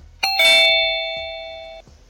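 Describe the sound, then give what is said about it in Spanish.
A studio signal chime (buzzer) marking a break in a radio program plays two quick bright notes, ding-dong, then a steady ringing tone that slowly fades over about a second and a half, heard alone without talk. “Bueno, lo hacemos después de una pausa porque ya sonó esta chicharra.”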